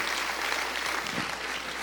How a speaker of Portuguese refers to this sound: Pode, pode aplaudir, Aleluia. queridos. Aleluia!